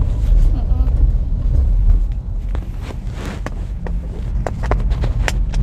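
car interior

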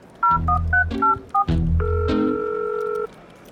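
telephone dialing tones

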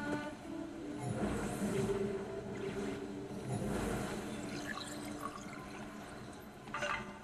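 waterfall rushing water

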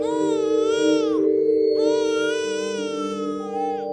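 baby crying

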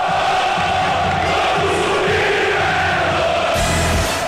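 crowd shouting and cheering

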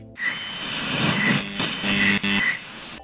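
owl call

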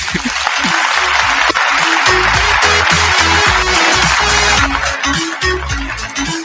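applause

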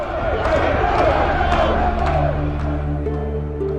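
crowd cheering

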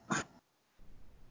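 sneeze

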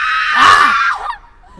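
people screaming

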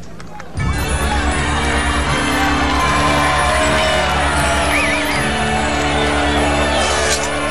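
audience applause and cheering

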